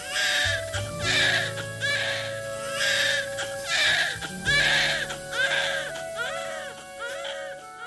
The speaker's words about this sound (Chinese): 孩子落地的第一声啼哭